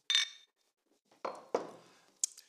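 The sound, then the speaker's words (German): Two glasses holding homemade lemonade and Spezi, orange soda and cola clink together once in a bright, ringing toast, followed by a few duller knocks and taps as the drinks are handled and set down; no one speaks. “Prost.”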